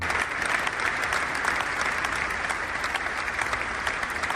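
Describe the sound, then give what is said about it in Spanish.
Hundreds of Guardia Civil officers applaud steadily outside the cathedral in Pamplona, Spain, as the body of a murdered agent arrives for his funeral, a dense, sustained wash of clapping with no break or voices standing out. “Cientos de agentes del cuerpo de la Guardia Civil entre aplausos recibían el cuerpo de David frente al templo”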